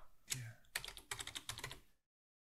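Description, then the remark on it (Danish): Rapid keystrokes clatter on a computer keyboard as text is typed for a hotspot being added in a video editor, in a short burst of typing. A brief pause splits the clicks before they stop abruptly after about two seconds. “Jeg tilføjer et hotspot her og skriver”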